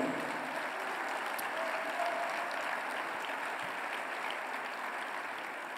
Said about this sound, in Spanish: Vamos a darle un aplauso al Señor por eso.